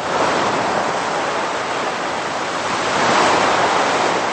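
Steady roar of ocean surf washing onto a beach, a broad continuous hiss that swells slightly louder toward the end. No voices, just the constant rush of waves.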